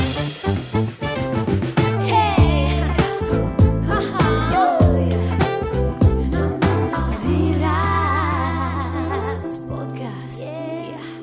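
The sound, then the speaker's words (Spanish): An upbeat instrumental intro jingle with punchy rhythmic hits, a steady bass line and bright melodic synth lines, loud, playing on its own without any talking. “Rueda la intro.”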